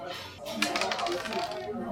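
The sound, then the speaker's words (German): Dice clatter and rattle across a hard surface in a quick burst of small clicks and knocks, rolled to decide who goes first, with a faint murmur of voices underneath. “Deswegen würde ich sagen, wir würfeln einfach mal, wer loslegt, oder?”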